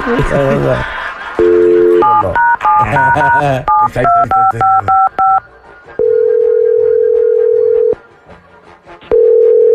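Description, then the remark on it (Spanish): A brief burst of talking in Spanish, then a rapid run of beeping touch-tone keypresses dialing a phone number to call a compadre, followed by a long, steady ringback tone and the start of another ring. “Vamos a marcarle al compadre.”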